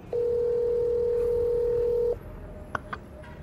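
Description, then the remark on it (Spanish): A cell phone call ringing on speakerphone: one steady, fairly loud electronic ringback tone lasting about two seconds, then it cuts off, followed by a couple of faint clicks. “Ginny buscó en su celular el número de Naoto, lo llama y activa el altavoz”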